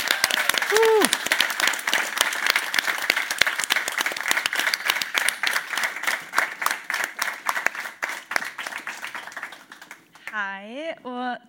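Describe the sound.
A crowd applauds steadily for about ten seconds, a dense patter of many hands with a brief whoop near the start, then the clapping fades as a voice starts speaking. The applause welcomes the two organizers of the event at the end of the show Tull alvor.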